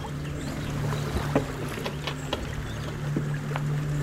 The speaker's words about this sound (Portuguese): nosso barco para por alguns instantes dentro da caverna. O som do mar ecoa nas paredes.